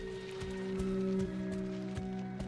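horse hooves clip-clopping

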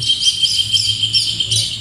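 birds singing outdoors

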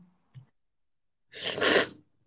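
sneeze

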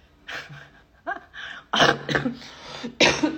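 coughing

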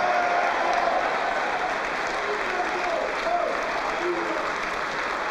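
audience applauding

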